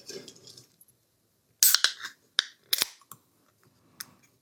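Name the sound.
beer can being opened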